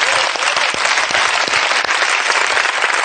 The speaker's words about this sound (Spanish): Así que gracias por todo, Kino. Un aplauso para él.